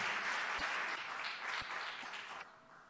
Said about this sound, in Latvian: Lūdzu, un ar aplausiem mēs viņus sagaidīsim. Lūdzu, visi, kas šodien kristīsies, nāciet lūdzu.